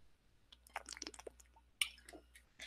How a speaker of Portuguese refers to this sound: Então, ó, deixa eu beber um pouquinho de água.